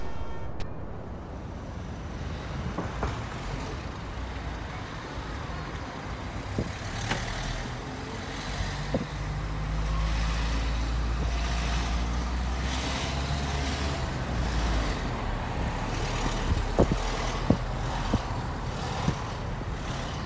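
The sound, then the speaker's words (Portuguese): Steady road traffic on the Via de Cintura Interna ring road by the Contumil neighbourhood in eastern Porto rumbles continuously, with heavy low-end engine noise from passing trucks and cars, occasional louder vehicles swelling through, and no one speaking. “A quietude é do bairro de Contumil contrasta com o trânsito da via de cintura interna.”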